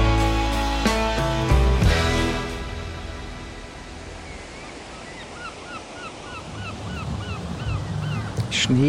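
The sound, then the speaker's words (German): Gulls cry in a series of short, rising squawks over a steady wash of surf on a white, fine-sand beach with palms on the Gulf of Mexico coast of Alabama, with a louder burst of harsh calls near the start and fainter ones trailing off. “Ein paar Möwen, ein paar Palmen.”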